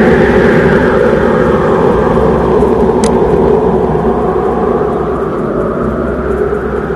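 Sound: icy wind blowing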